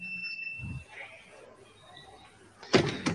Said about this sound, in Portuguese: Vai trancar a porta? Tá com medo do quê?